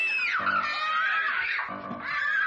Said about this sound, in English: close on Laurie, both children scream